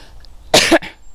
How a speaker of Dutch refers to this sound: Eventjes hoesten hoor.